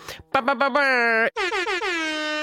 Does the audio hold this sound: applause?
no